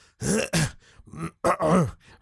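A person makes a quick series of harsh, strained throat-clearing and choking noises, four or five loud rasping bursts with short gaps between them, and no talking, as if a grain of rice were stuck in the throat.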